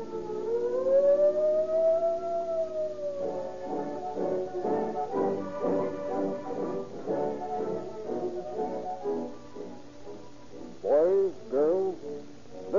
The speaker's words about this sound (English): Those shots came from the official junior police pistol, and that siren shriek came from the official junior police siren whistle.